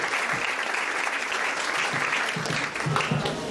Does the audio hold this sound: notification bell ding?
no